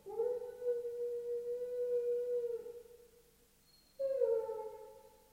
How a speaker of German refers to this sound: heult der Hund. Wie schwül es ist. Aus irgendeinem Grunde heulen die Hunde.